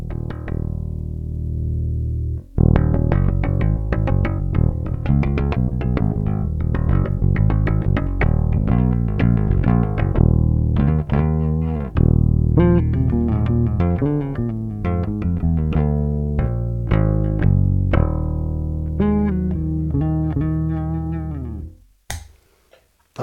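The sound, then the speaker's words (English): A Precision bass strung with flatwounds plays a groovy line through an Aguilar Tone Hammer 500 bass amp with all controls set flat, thick warm low notes with a mix of sustained tones and short plucked runs, steady and fairly loud, ending with an abrupt stop. “So here we are with the Aguilar Tone Hammer 500. Everything straight up and down. Here we go. P bass, flat wounds.”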